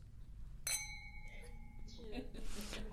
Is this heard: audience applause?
no